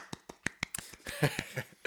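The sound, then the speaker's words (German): Soft, sparse, sarcastic hand clapping, about a dozen light claps in a loose, unhurried rhythm, quiet, growing slightly busier toward the end, applauding someone getting a drone licence, with no one speaking. “wo dann die da so stehen und so ganz leise klatschen”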